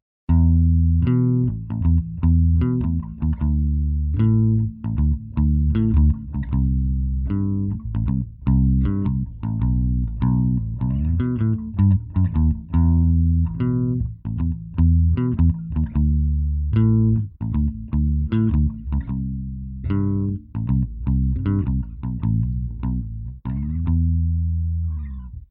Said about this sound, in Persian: اما متداول ترین نوع گیتار بیس در دنیا نوع چهار سیمه الکتریک اونه. فراموش نکنیم که گیتار بیس نوت‌های بم رو اجرا میکنه. صدای این ساز اینطوریه.